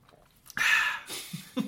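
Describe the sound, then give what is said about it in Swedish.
A single slurping sip of coffee that has gone somewhat cold, a brief airy pull lasting under half a second, followed by soft mouth and swallowing noises, with no talking. “Uh, jag ska ta en klunk av det här goda kaffet.”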